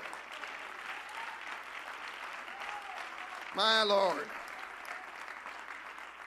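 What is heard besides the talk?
audience clapping hands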